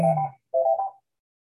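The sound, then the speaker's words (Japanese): A telephone rings in two short electronic bursts, a bright warbling tone with a brief pause between them, then silence. “お電話が。”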